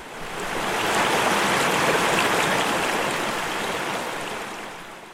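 mountain creek water flowing

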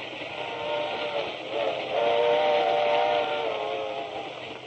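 train departing with whistle

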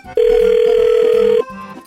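telephone ringing

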